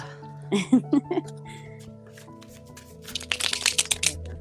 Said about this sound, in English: cards shuffle, darling. Shuffle yeah.